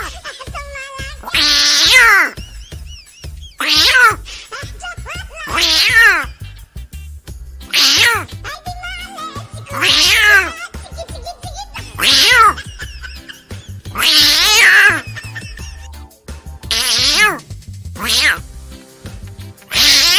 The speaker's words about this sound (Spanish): quién sabe desde a qué horas, maulle, maulle un gato y como la ventana donde yo me quedo a dormir estaba cerquita de esa palmera, yo dije, bueno, pues qué bendito gato. Y toda la noche... ¿eh? Meow.